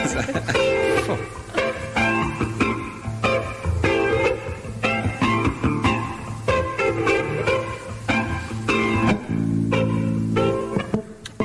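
A live tango recording from the Olympia in Paris, 1977, plays at full volume, with punchy rhythmic accents and sustained reedy chords driving steadily forward, and no voices over it.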